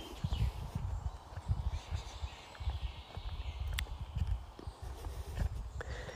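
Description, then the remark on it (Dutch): Steady footsteps crunch and thud over soft forest ground in an even walking rhythm, with faint birdsong in the background and no talking, early on a summer morning among puddles left by the previous day's rain. “Ik volg mijn voeten aarde raken.”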